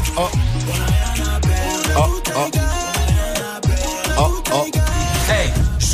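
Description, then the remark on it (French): A song mixed in reverse as a puzzle for listeners to identify, loud and continuous, with reversed drum hits swelling into sharp cutoffs and warped, wavering vocal melodies over a thick bass line. “C'est un son qui a été mixé à l'envers.”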